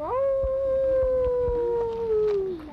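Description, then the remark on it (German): A single long, steady howl with a sustained wavering tone, held for a couple of seconds before trailing off: children imitating wolf howls to lure wolves, on a gravel viewing platform above a wolf enclosure in a forest, in drizzle, with faint outdoor background noise beneath. “Die Kinder versuchen sich im Imitieren von Wolfsgeheul, um die Wölfe anzulocken.”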